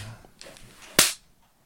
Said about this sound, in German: Ich klatsche jetzt einfach mal, okay?